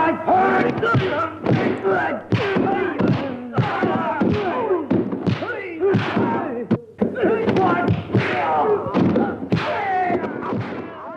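Bruce Lee's distinctive martial arts fight sounds: shrill, wailing battle cries in quick bursts, punctuated by sharp, loud punches and thuds throughout, with no ordinary talk.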